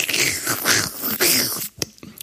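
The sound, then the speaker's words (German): A wet slurping and sucking noise made with the mouth, imitating sucking the soft-boiled contents, brain, out of a head while eating it, for about a second and a half, then a couple of short smacking clicks before it fades. “Und dann schlürft man quasi die weichgekochte Masse, Hirn, ich weiß nicht was, äh, saugt man so”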